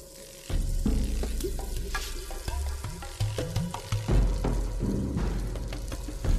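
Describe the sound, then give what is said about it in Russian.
Five-second rain stick loops placed at different points in an ambient music track: a dense, hissing cascade of tiny pellets pours on steadily for several seconds, layered over low, sustained musical tones that swell and shift beneath it. “Их приближение буквально ощущается кожей, благодаря этим пятисекундным петлям из дождевых палочек, звучащих в разных местах трека.”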